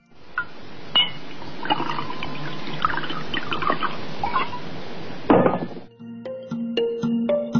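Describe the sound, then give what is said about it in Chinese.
Water runs steadily with a broad splashing hiss for several seconds, then a brief louder gush, followed by a rising, ringing gurgle as a host pours a large glass of water, recorded outside a live broadcast studio. No one speaks. “我想听了前三段，你大概猜出来了，它们都是水的声音。”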